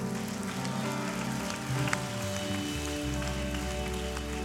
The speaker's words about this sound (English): Can we just give God a hand clap of praise before we pray real fast?